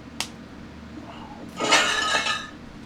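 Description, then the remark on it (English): Dishes clink and clatter as someone washes them, a sharp single knock first, then a busier jangle of glassy, ringing contacts for about a second, moderately loud with a low hum underneath. “mute yourself or, or, whoever's doing dishes.”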